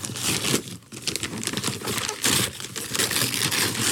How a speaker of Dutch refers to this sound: Ja, ja, ik heb een cadeautje voor je, man. Je hebt een cadeautje voor mij? Zo, in de box. Kijk eens. Nou, ik ga, hem gelijk uitpakken hoor.